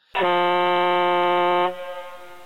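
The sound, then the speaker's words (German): The ICQ instant messenger startup sound on a PC: one loud, buzzy, horn-like blast held at a steady low pitch for about a second and a half, then cutting off into a short fading tail. No one speaks. “Ich, dieser ikonische Startsound”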